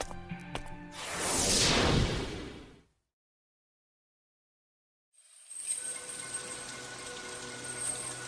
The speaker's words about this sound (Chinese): 真是见鬼了！最近地府咋老是下雨呀？